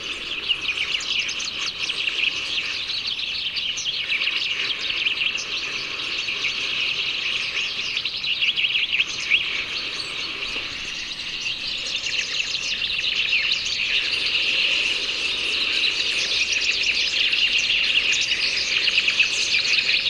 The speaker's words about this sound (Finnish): Ja se oli sitten Peippo Parvi, se Parvi. Ja... No kuunnellaan sitä.